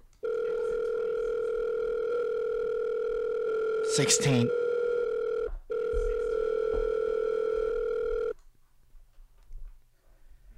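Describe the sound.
A loud, steady telephone dial tone hums for about eight seconds with one brief break; a voice speaks over it midway, then the tone cuts off, leaving quiet room noise.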